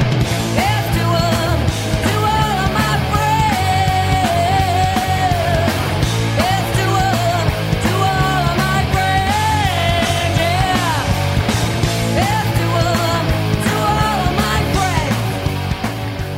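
A loud, raw rock song from 1994 with a woman singing over driving guitars, bass and drums, the dense full-band sound holding steady for the whole stretch.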